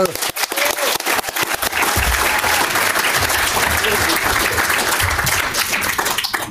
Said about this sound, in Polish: Brawo, klaski!